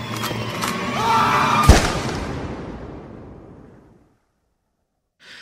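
Crackling bursts of fireworks and rockets at the Senhora do Pilar celebration, with a sharp, loud gunshot from gunmen that rings out and slowly fades into silence, followed by a brief hiss at the very end.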